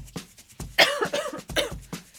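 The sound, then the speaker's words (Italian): A person coughs repeatedly, a rapid string of harsh, raspy bursts with a couple of heavier hacks in the middle. There is no talking. “No, capita di avere la tosse per altri motivi.”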